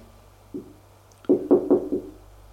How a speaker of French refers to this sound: On a frappé à la porte. Elle sursaute.